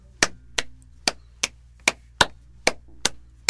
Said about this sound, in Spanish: Constantemente, si uno aplaude rítmicamente, ¿sí? el contratiempo es el silencio, digamos. O sea, tú aplaudes y yo aplaudo.